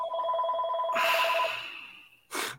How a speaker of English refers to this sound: Mike's phone going off again in the middle of yeah. the show.